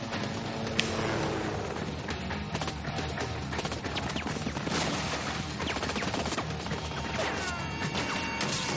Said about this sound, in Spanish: da un salto y le abate de varios tiros. A continuación, un motorista se dirige hacia él. El espía lo esquiva y le dispara.